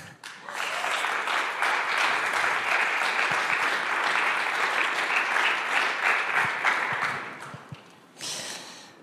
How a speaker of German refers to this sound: Gebt doch ihnen einen Applaus.